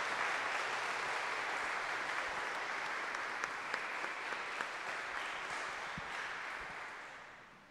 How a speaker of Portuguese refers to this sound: Vamos aplaudir o Santo Evangelho, a palavra de Jesus.